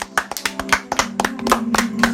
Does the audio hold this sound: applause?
yes